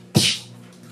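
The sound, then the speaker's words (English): A single sharp, breathy burst made with the mouth, a voice imitating a silenced gunshot: a quick hissing "pff" that fades fast, fairly loud, with no talking. “It's the sound of a silencer.”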